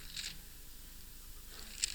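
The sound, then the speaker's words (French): Thin, crisp pages of a Bible rustle and flip twice, once at the start and again near the end, soft, with no talking. “Et vous entendez les feuilles de ma Bible se tourner.”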